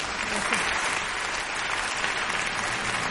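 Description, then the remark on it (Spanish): Steady, dense applause from an audience welcoming the evening's guests, many hands clapping continuously at an even loudness for a few seconds with no break or voice over it. “Así que quiero recibirles con un muy, muy, muy fuerte aplauso a los invitados, invitadas de esta noche.”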